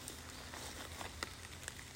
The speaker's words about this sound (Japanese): はい、雨降ってます。